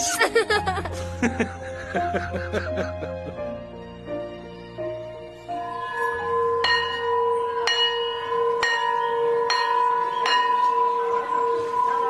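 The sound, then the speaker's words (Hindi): A school bell rings with a rapid clatter of strikes at first, then slower repeated clangs whose bright tones hang and overlap, with faint voices in the background. “school की घंटी बजते ही मैं गेट की ओर तेजी से भाग जाता था क्योंकि मुझे पता था कि पापा मुझे लेने आए होंगे”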